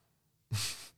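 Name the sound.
sneeze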